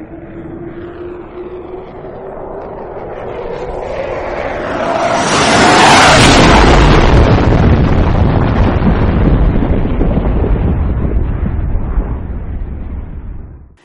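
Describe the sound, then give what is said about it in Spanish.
A spaceship roars past with a sonic boom and climbs away into the distance: a rising whine swells into a loud, broad rush that peaks and crashes as the air closes behind it, then leaves a heavy, rumbling roar that slowly fades. No voices. “que paralizaba el ánimo, y se remontó en la lejanía dejando que el aire abierto se cerrara a su paso con un estampido que sepultaba las orejas en lo más profundo del cráneo.”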